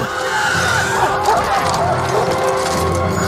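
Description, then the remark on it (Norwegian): A loud, harsh, shrieking cry from a dark creature flying high up, sustained for about three seconds, with rasping, wavering tones over a rumbling background, like a monstrous flying beast screeching. “Det er noe som flyr høyt der oppe! Noe mørkt og skummelt! Å nei! Det er Nazgul.”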